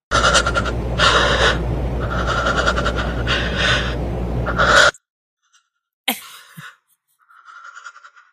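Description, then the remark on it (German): Loud, wild heavy breathing with moaning, coming in rhythmic surges for about five seconds, then a pause followed by a couple of shorter, fainter breathy bursts. “Wildes Stöhnen so ein wildes Stöhnen.”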